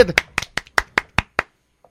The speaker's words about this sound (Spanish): fíjate, tú solito, tú solito, sale, cuando les digo aplausos, sale.